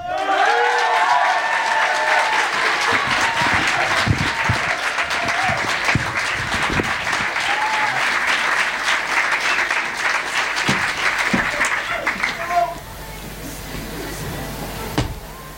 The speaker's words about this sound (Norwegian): Så vær så snill, gi masse varm applaus